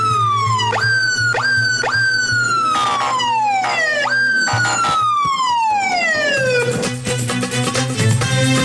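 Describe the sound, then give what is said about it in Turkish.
A loud police car siren wails, its pitch repeatedly sweeping down in falling yelps, over a steady low engine rumble with traffic noise around it. “Basmane meydana bir siren alabilir miyiz demişler.”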